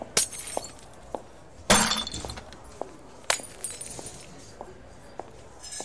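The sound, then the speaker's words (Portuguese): Glass bottles are kicked and shatter in a bar in a few sharp crashes, the loudest near the start, followed by scattered tinkling clinks of broken glass and light shuffling steps. No voices. “saiu do bar derrubando mesas, chutando garrafas, caminhando em direção ao seu caminhão.”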